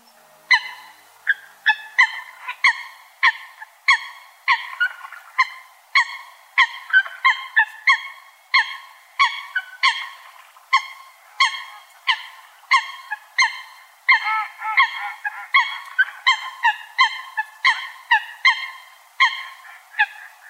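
Eurasian coots calling from the reeds around a pond in Toneri Park, Adachi Ward, Tokyo: a long, steady series of loud, nasal honking notes repeated in quick rhythm, some overlapping, with no voices present.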